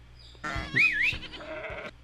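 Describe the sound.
A sheep bleats once, a wavering, nasal baa lasting well over a second, loud with a rising and falling pitch.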